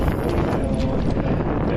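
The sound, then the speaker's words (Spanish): Strong, steady wind buffets the microphone on an open coast of the blue Adriatic Sea, a loud continuous low rumble with a faint hiss of water and boats, including yachts, motorboats and canoes, underneath, no voices. “y con el día que hace pues hay muchos yates lanchas, canoas, en fin, mucha gente que aprovecha para hacer deportes acuáticos.”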